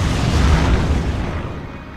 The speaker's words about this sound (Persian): یه چیزی تو جاده منفجر میشه